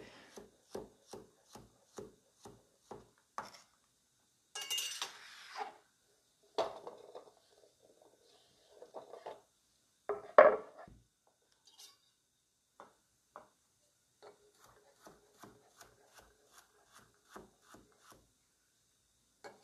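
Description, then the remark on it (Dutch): A knife chops cucumber on a wooden board, cut lengthwise into quarters and then into small cubes, in quick, steady taps, with a few louder scraping and sliding sounds midway, then the even chopping rhythm resumes. Clear, no voices. “Even in vieren. Dus eerst de helft en dan nog een keer. En dan ook weer kleine blokjes.”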